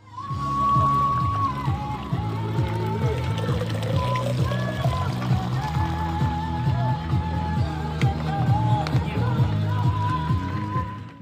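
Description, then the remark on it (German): Water pours and trickles steadily into a bottle as water is fetched at a busy outdoor aid station up at a lake at high altitude, with rhythmic music playing loudly and people chattering in the background. “oben am See, wo man dann schon oben in der Höhe ist, da habe ich mal so einen kurzen Ton aufgezeichnet, wie das so an so einer Verpflegungsstelle sich anhört, wenn man sich Wasser holt mit Musik im Hintergrund.”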